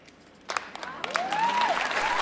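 A large Oscars ceremony audience bursts into stormy applause as Frances McDormand ends her acceptance speech with the words 'inclusion rider', the clapping quickly swelling into a dense, sustained roar after a brief quiet moment, with a sliding whistle cutting through the crowd.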